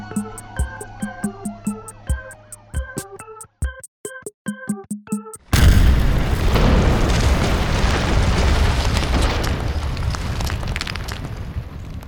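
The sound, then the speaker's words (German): A quick series of rhythmic electronic tones, then a sudden huge explosion booms and rolls into a long, heavy roaring rumble that slowly fades. “an denen er Gefahr lief, von einer großen Explosion in Stücke gerissen zu werden.”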